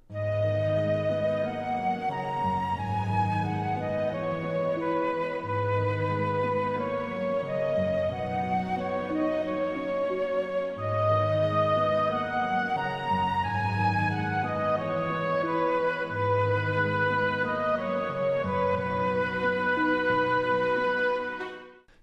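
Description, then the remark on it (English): A full orchestral passage, the last four bars of a melody, where the flute melody is doubled by the oboe over sustained chords and a steady, repeating bass line, with all the instruments playing, continuous and fairly loud throughout. “the melody starts off with the flute, but in those last four bars of this melody, the oboe also comes in to double that melody.”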